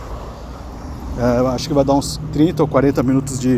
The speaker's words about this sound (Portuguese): Basicamente, eu, agora eu estou andando, vocês podem ouvir os carros aqui passando, eu estou perto de uma, de uma avenida e eu estou em é, indo em direção à casa dos meus pais.